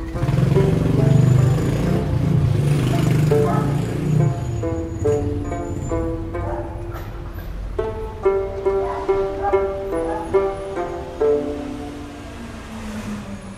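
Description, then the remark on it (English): A bus engine rumbles loudly and steadily, then its pitch shifts as the bus slows, pulls in at Thebes and idles while passengers get off, with a low drone and some tonal whine continuing throughout. “The bus pulls into a no man's land.”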